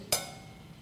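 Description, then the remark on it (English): A single hand-muffled cymbal strike: a sharp metallic hit that is choked almost at once, leaving only a faint, short ring instead of a lasting crash. “This cymbal is engineered to reverberate to make a loud sound unless something muffles the noise.”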